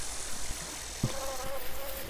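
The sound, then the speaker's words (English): Soft, steady insect buzzing drifts through a quiet space, a faint droning hum that wavers slightly, with a brief low knock partway through and a hushed background hiss. “There are a few insects buzzing lazily through the air, as well as the rustle of leaves and flowing of water.”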